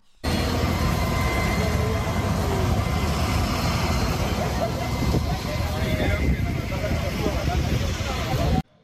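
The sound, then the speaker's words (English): A steady, loud outdoor rumble of large vehicle engines, two migrant buses from Texas arriving outside Vice President Kamala Harris's residence at the Naval Observatory, runs throughout, mixed with wind buffeting and indistinct voices in the background. “Insider paper video new two migrant buses from Texas arrive outside of VP Kamala Harris's residence.”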